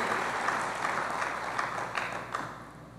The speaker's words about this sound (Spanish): Denle un aplauso bien fuerte al rey.